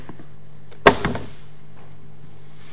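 A single sharp bang, like an object dropped onto a hard floor, followed by a quick smaller bounce and a brief fading rattle against a quiet background.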